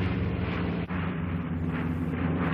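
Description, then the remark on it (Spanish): Rotary-barrel Gatling machine guns fire from an old C-47 aircraft circling its target in a sustained, loud buzzing roar, with a brief break partway through before the heavy drone resumes and continues to the end. “Han instalado unas ametralladoras Gatling con cañón rotativo, un arma devastadora, con una velocidad de disparo muy elevada.”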